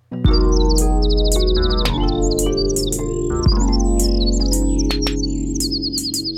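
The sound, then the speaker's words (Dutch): Rose-ringed parakeet calls: shrill chirps and rapid trilling bursts repeat over a steady, loud low-pitched hum, with no talking. “Nou ja, halsbandparkieten zijn vooral te vinden in de randstad.”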